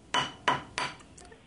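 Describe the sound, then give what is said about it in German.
Glasses clinking together in a toast: three bright, ringing taps about a third of a second apart, followed by a couple of fainter touches, with no talking. “Prost, ja, gut, Mann, das siehst du, das ist doch, das sind doch, äh, pass mal auf, kling, kling, hör mal.”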